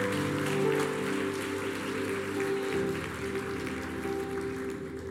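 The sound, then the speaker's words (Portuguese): A crowd claps steadily and loudly for several seconds as applause to God, a dense wash of applause over sustained keyboard-like musical tones, easing slightly toward the end. “Dê um forte aplauso àquele que vive e reina para sempre.”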